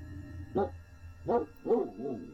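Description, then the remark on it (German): A huge dog barks four times at night in a slow, uneven rhythm, deep and muffled, the last bark softer and trailing off, over a low, steady background hum. “Und, was das Schlimmste von allem war, das leise, tief tönende Gebell eines riesigen Hundes.”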